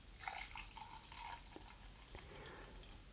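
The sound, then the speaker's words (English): Tea is poured steadily into a cup, a soft, continuous trickling with bright gurgling tones for about three seconds. It's quiet, with no voices. “One of which was the pouring of the tea in the background. So here it comes.”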